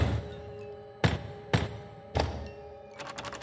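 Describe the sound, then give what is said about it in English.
A doorknob jiggles on a door turning gray with smoke: three sharp metallic thunks spaced about half a second apart, then a quick run of faint rattling clicks. No one speaks, and a low steady hum sits underneath. “The doorknob jiggles at a door turning gray with smoke.”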